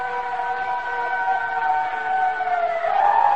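A fire siren wails in a long, steady, continuous tone that swells upward in pitch near the end, fairly loud and filling the whole moment with no voices.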